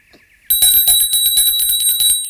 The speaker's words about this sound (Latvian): Ah, sveiks, Pūki! Ko tu te lēkā? Es gribu aizsniegt durvju zvanu